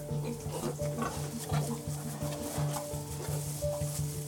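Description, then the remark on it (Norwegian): Pigs, including piglets and sows, grunting steadily inside a farm pig barn, a dense overlapping chorus of low snorts and oinks with occasional higher squeals, continuous and fairly loud with no talking. “hjelpe spegrisene, varme dem og hjelpe dem fram til eh, purka, sånn at de får i seg melk”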